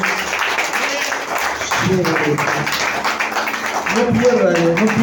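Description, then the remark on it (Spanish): A church audience claps steadily in a dense, sustained burst of applause given to the presence of God, with a voice calling out loudly over it partway through. “Vamos a darle un fuerte aplauso a la presencia de Dios.”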